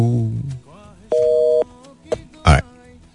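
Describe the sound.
A single steady electronic telephone busy tone after a dropped call sounds for about half a second, clear and fairly loud, surrounded by a brief voice fragment beforehand and a couple of short, sharp vocal noises afterward.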